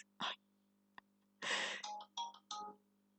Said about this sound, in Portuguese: Pá, parem de mandar coisas. Ainda por cima este telemóvel está com um toque tão irritante.